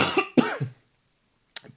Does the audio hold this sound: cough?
yes